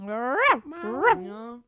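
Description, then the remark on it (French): A person imitates a dog with two drawn-out, whiny bark-like yelps, each pitched up then falling, fairly loud with no other sounds around. “Propose, propose elle fait un bruit de chien à un moment donné”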